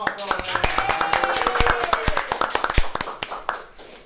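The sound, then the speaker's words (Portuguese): A round of applause for a company's CEO: many hands clapping in dense, irregular bursts, with some cheering voices mixed in, lasting the whole few seconds before tapering slightly at the end. “É Vamos dar um é salve, é uma salva de palmas dentão. pra ele aí?”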